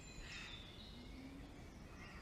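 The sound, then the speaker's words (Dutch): Faint birds chirp and trill at sunrise in a nature area over a soft, steady outdoor background hum, with no voices present. “En je ademt rustig in en uit terwijl de geluiden van de vogels jou omringen.”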